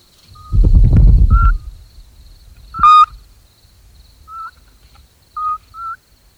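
A mother scops owl in the nest gives short, soft whistled calls to her chicks in several brief bursts, spaced irregularly, over a quiet background with a low rumbling thump near the start and one sharp click.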